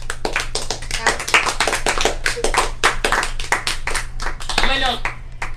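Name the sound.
hand clapping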